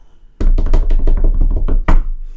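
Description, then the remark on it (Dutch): A short drum roll of about a dozen quick, loud, knock-like hits rattling along for nearly two seconds and ending on one sharp accent, with no voices. “Wacht, nu komt de tromgeroffel.”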